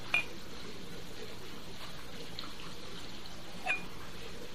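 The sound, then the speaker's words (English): A quiet pour of a splash of Michter's cask strength rye whiskey into a glass, a soft steady trickle framed by a light glassy clink at the start and another just before the end. No one speaks. “Uh, it has done well with the Michter's, which I'm having to get a little bit more of.”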